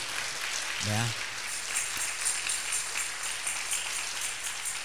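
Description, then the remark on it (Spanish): A church audience applauds for the people listening, in a steady, dense wash of clapping that lasts the whole stretch at an even moderate level, with a brief voice rising out of it near the start. “Un aplauso a la gente que está oyéndonos.”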